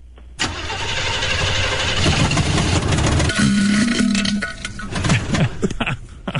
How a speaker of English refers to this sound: I had a little bit of problems with my car backfiring this morning